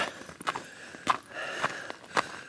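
Steady footsteps of shoes crunch on snow in a forest at dusk, at an even walking pace, four or five crisp steps over a quiet outdoor background with no talking.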